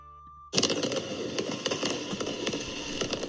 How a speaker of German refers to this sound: So hat das am Sonntag in der Nacht in San Salvador geklungen, als sich über der Hauptstadt von El Salvador ein buntes Feuerwerk ausgebreitet hat. Präsident Nay Bukele hat damit den Sieg seiner neu gegründeten Partei Nuevas Ideas gefeiert.